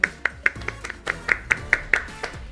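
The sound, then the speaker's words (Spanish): A short burst of applause for a guest, called for by the host: about a dozen sharp, crisp hand claps in a steady, fairly quick rhythm, moderately loud, with no one talking over them. “Un, aplauso. Un aplauso.”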